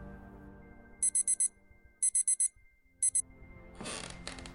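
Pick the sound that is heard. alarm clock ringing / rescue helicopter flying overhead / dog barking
alarm clock ringing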